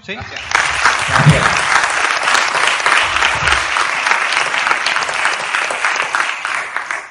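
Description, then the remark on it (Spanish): Sustained applause from an audience for a Spanish filmmaker, a dense steady patter of many hands clapping at an even level for several seconds, with faint low murmurs underneath. “Sí, chicos, le damos un aplauso”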